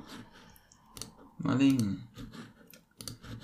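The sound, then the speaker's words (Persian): A few sharp, isolated computer mouse clicks spaced irregularly, close and fairly crisp, with a short burst of voice in the middle and faint background noise. “این داره میپره بالا نمیدونم کلیک بکن روش”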